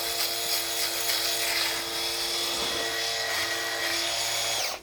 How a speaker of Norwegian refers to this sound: Og Når jeg skal under her, så må jeg liksom strekke litt sånn her. Opp og ned og opp og ned og att og fram. Jeg tenkte jeg skulle ta halve ansiktet med maskinen, så tar jeg halve med med, um, med høvel etterpå.